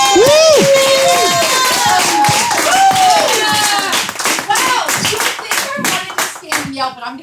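A crowd bursts into loud, steady applause with dense clapping, mixed with high whoops and cheers over the first few seconds; the cheering fades while the clapping thins toward the end.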